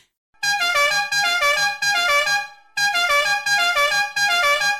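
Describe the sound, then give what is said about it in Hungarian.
A loud car horn honks in a film, in long blaring bursts, four drawn-out honks in a repeating pattern with a brief gap midway, piercing, with no voices. “ezt most megmerem kockáztatni, hogy, hogy ebbe a filmbe hangzik el a legtöbb dudaszó szerintem a film történetben.”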